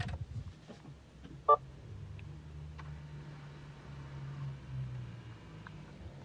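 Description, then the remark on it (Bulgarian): A short electronic blip as an electric car is switched on by pressing its start button, followed by a faint, steady low hum that continues quietly in otherwise hushed surroundings, in the central square of Bistritsa. “да започнем с разликата между невключена и включена кола. Това е не включена и натискам копчето за включване.”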